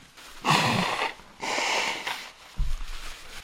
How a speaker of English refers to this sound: Let me blow my nose. Wednesday. My nose is starting to starting to run.